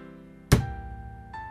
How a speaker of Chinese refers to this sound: 砰！邦姆波罗缪爆裂的用拳头砸向桌子，盘子和杯子都从桌子上震了下来。